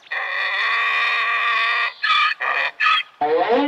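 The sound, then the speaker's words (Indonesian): A donkey brays loudly: one long, sustained honking note followed by a few short, rhythmic gasping pulses, then a falling, wheezy finish. “Keledai pun mengaum, mencoba mencontoh auman yang biasa dilakukan singa asli untuk menakuti mangsanya.”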